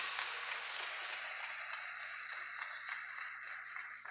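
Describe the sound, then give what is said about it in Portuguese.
A crowd breaks into sustained applause for the Lord, dense overlapping claps filling the space evenly for several seconds before tapering slightly at the end, with no one speaking. “Vamos aplaudir ao Senhor por isso.”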